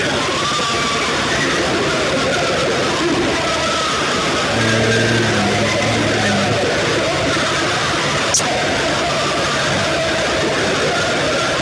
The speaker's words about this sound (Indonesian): gue merinding loh denger kayak gini kedengeran banget kayak orang tuh jerit kenceng kayak emang gak kedengeran jelas tapi ini kayak suara triliunan orang menjerit bersama-sama kayak lagi disiksa di neraka gitu